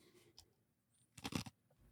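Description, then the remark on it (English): Someone crunches ice with their teeth in one short, crackly burst of a few quick bites, fairly quiet, with near silence around it and no talking. “I crunched ice really bad.”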